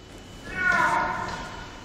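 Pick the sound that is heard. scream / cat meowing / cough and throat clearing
cat meowing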